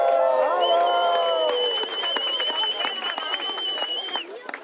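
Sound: crowd applause and cheering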